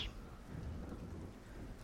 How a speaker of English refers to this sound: and now you are currently uh, at night camping in the bush. there's you know rain beating down around you, uh, dripping off, uh, you know, ferns and